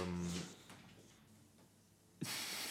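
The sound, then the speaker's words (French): A dog stretches after lying down for a long time, letting out a brief low groaning whine at the start, then a faint shuffle and a sudden burst of rustling, hissy noise near the end. No one speaks. “si vous avez entendu des c'est mon chien qui vient de s'étirer parce qu'il était allongé depuis trop longtemps et là, il s'est rallongé lamentablement.”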